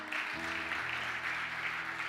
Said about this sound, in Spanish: Denle un aplauso fuerte a papá.